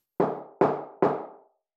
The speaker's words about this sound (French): À peine le papa d'Adam venait-il de raccrocher le téléphone que quelqu'un frappa trois grands coups à la porte.